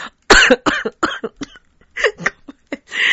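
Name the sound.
coughing fit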